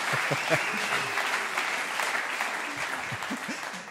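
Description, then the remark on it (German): Audience applause, a steady wash of many hands clapping at a fairly loud, even level for several seconds, with a few scattered voices mixed in underneath. “Hier bekommt man Applaus.”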